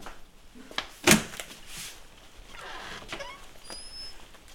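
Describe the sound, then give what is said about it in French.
Light rain patters steadily in the background at about 15 degrees as a travel stage begins, broken by a sharp clatter early on and a couple of faint, high chirps near the end; no one speaks. “Voilà, comme prévu, l'étape débute sous la pluie.”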